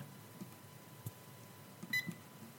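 A few faint clicks of the hour and minute buttons being pressed to set the timer of a phone lock box to two minutes, then a short, high electronic beep near the end, quiet, with no talking.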